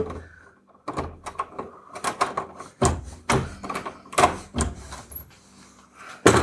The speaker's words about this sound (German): Ich mache die Türe zu.